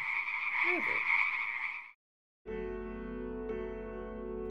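A loud frog croak rattles steadily for about two seconds, then stops; after a short silence, sustained music with low droning tones begins.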